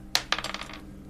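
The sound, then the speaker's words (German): Dice clatter onto a hard surface: a sharp first impact followed by several quick, diminishing bounces and rattles over about half a second, fairly loud, with no voices. “Würfel mal um 6 erschwert. Ui. Also jeden der drei Würfe quasi.”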